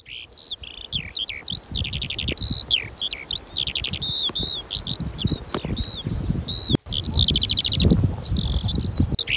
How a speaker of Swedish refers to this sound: Ja visst, det här är ju aprilvårsstämning när sånglärkan sjunger eh, eh, över de här eh, öppna markerna. Och Jormo har ju mycket öppna marker där, hedmarker där den sånglärkan trivs. Den sjunger redan för andra kullen, för andra häckningen,